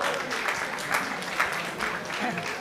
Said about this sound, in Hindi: सब लोग तालियां बजा रहे हैं तालियां किस लिए बजा रहे हैं